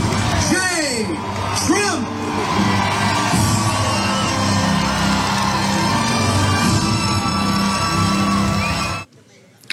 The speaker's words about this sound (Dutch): bijna de openingsscène van Jurassic Park. Zo klinkt die muziek erbij.